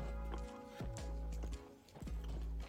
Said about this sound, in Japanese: 音聞こえましたこれちょっとモナカがですねチョコがあチョコじゃないアイスが溶けちゃってしなしなだったんですよでそれをやっぱトースターに焼くことによってモナカがですねもう一度サクっていう感じになりましたね